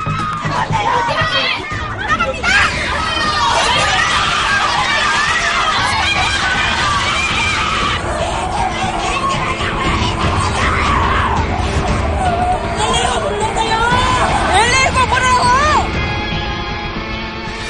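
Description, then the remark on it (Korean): A loud, dense crowd commotion at the main building of Ewha Womans University, with overlapping shouts and high-pitched screams rising and falling throughout, many voices yelling at once, and a glass door shattering with a sharp crash near the start. “유리문이 깨지고 곳곳에서 비명소리가 이어집니다.”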